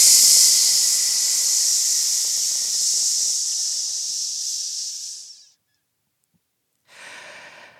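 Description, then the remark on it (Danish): A long, steady hissing exhale from a voice, a sustained "psss" lasting about five seconds, fairly loud, made as a singing breath-support exercise using all the air, followed by a pause and a shorter second hiss starting. “PS og brug al luften. Psss.”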